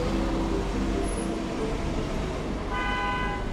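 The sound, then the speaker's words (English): Continuous rumble of busy city street traffic at the intersection of Larned and Griswold in downtown Detroit, engines idling and passing, with a car horn honking near the end over the steady roar. “I'm here on this intersection. I'm at Larned and Griswold, just kind of like downtown Detroit here.”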